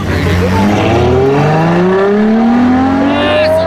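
A stolen car's engine revs up loudly and accelerates as the thief drives it away, its pitch climbing steadily over a few seconds as the vehicle pulls away, with a constant low rumble underneath.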